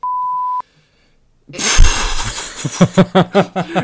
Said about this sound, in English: we're gonna we're gonna we're gonna beep that, right?